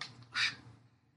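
A trailer door swings open with one short, squeaky creak of its hinge, fairly loud, over a faint low background hum.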